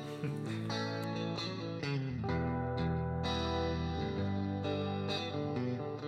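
A rock band plays with a thick, distorted electric guitar sustaining heavy chords over steady drum hits. The music is full and continuous at an even volume, with no singing.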